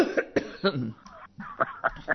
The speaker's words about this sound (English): okay, I'm sorry that I'm coughing.